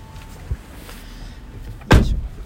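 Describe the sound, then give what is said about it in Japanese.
A single loud door shutting as someone goes outside to lock it, with a heavy, low thud and short rattling decay, preceded by a faint soft bump over a quiet background hum. No one speaks. “外出て鍵閉めるから”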